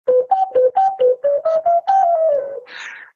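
A small wind instrument plays a quick, bright tune of about ten short notes, ending in a long note that slides downward and a breathy puff of air. It is fairly loud, with no talking.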